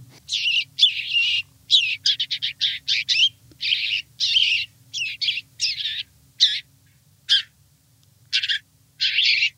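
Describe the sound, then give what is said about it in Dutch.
A small bird gives a rapid series of harsh, high-pitched distress calls in irregular bursts, loud and close, with a low hum underneath and no one speaking. “Volgens mij is het een huismus die door de sperwer wordt gepakt of zo.”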